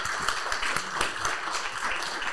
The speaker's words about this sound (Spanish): Le damos un aplauso con cariño a Mario Borghino.